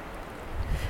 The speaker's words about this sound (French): On entend la rivière. C'est trop bien.